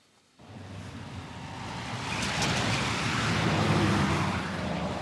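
Muffled traffic noise rumbles steadily from outside a car parked outside a shopping centre in Tromsø, a broad low hum that swells gradually after a quiet start, with no voices.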